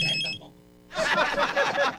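A brief electronic telephone ring on line 2 of a DJ's phone sounds, cuts off after half a second, and is followed by a loud, dense burst of busy noise.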